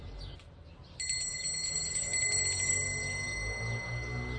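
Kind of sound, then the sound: signal or alarm, small bell ringing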